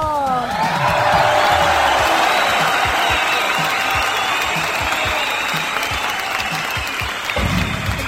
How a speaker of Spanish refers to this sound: ¡Bravo! ¡Aplausos, para mi público, conocedor!